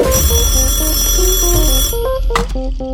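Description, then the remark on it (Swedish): A telephone rings for the first incoming call, playing a melodic run of electronic beeping tones that step up and down in pitch, steady and fairly loud, with a brief noisy burst near the end. “vi har vårt första samtal.”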